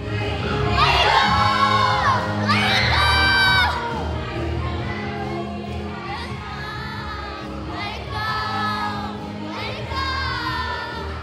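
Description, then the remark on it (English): A lively crowd of children at a camp party cheers and shouts together, high voices whooping in loud overlapping bursts that rise and fall for several seconds, with no clear speech. “All right, make some noise.”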